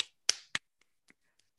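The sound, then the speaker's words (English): Hands clap twice in quick succession, sharp and loud, followed by a few much fainter, scattered taps that trail off into quiet. No one speaks. “I'm just really clapping my hands.”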